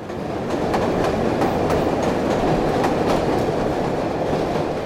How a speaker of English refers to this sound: Chicago's first elevated train was built in 1892, running from downtown to 39th Street. The line was extended to Jackson Park in 1893 for visitors to the World's Fair.